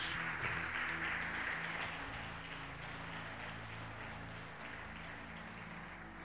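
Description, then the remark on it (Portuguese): A crowd applauds steadily for several seconds for the Lord Jesus, a dense wash of many hands clapping that eases slightly toward the end, with low sustained musical tones underneath and no talking. “Dá uma salva de palmas ao Senhor Jesus.”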